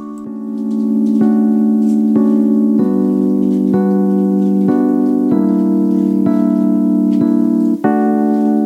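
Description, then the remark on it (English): Instrumental intro of a debut pop song with sustained, rich chords changing in a steady rhythm about every second, played loud with no vocals yet. “we're going to play this song”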